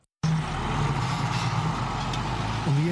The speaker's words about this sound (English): outskirts of Samara, a town in Ethiopia's Afar region, tractors prepare the soil to plant wheat.